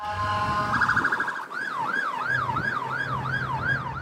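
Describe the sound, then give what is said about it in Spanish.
An ambulance siren wails loudly as injured people are taken to hospitals, first in a rapid warble, then sweeping up and down in a steady repeating cycle, with the low rumble of traffic underneath. “Una migrante venezolana pedía gritos por su marido, que estaba detenido y salió en ambulancia.”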